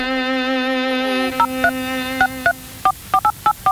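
A steady telephone dial tone hums, then stops as a series of short, evenly spaced keypad beeps ring out one after another, each a crisp two-note electronic tone, clear with no voices.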